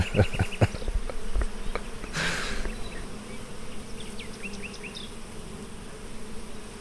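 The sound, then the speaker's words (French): A calm, gentle honeybee buzzes as it circles around a person, its drone wavering in pitch and loudness, with a few soft clicks and faint bird chirps in the background and no one speaking. “Celle-là, par exemple, qui tourne autour de toi, elle est douce.”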